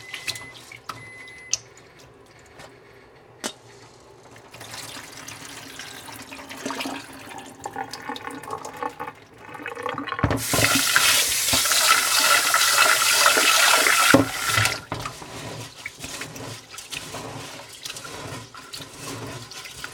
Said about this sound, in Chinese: 所以我通常呢，我会洗个四次。那前三次呢，你就是用一般水龙头的水，然后一直不断的去搓它，搓它。